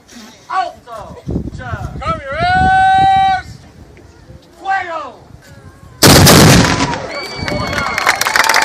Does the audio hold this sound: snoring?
no